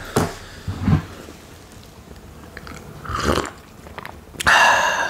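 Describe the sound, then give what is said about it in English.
Someone drinks and swallows a drink that is not coffee right up against the microphone. Wet gulps and mouth noises come in several separate bursts, ending with a louder, harsher breathy sound. “this me drinking so close to the uh, to the microphone is specifically for Ryan Remington, specifically.”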